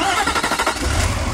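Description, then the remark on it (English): The Cummins V8 turbo diesel engine of a 2016 Nissan Titan XD pickup cranks with a quick burst of rhythmic chugging, then catches and settles into a loud, steady low rumble. “This is the sound of the Cummins V8 turbo diesel in the new 2016 Nissan Titan XD.”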